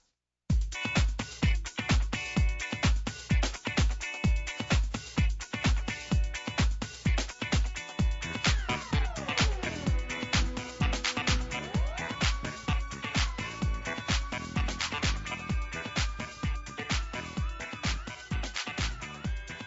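A Korean band song plays loud, driven by a steady pounding beat with bright electronic tones and a synth line that swoops down and back up midway.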